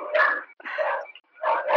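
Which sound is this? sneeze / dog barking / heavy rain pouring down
dog barking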